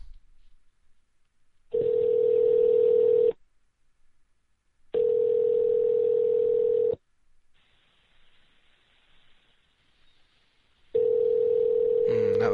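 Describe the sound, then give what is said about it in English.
An outgoing call's ringback tone sounds three times, each steady electronic burst lasting over a second and separated by quiet pauses, heard clearly over the line with no one talking. “Three rings.”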